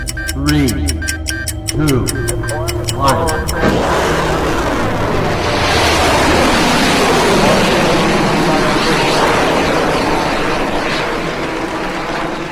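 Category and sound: vehicle, rocket launch roar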